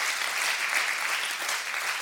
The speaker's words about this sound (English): Would you clap your hands all over this house and give Him some gratitude no matter what your circumstance is?